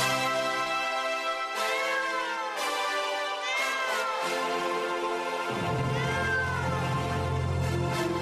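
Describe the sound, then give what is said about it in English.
A black cat walking along the pavement meows several times with rising and falling pitch, loud and up front, repeating over sustained synthesized keyboard chords that shift a few times. No one speaks. “And it's meowing, obviously.”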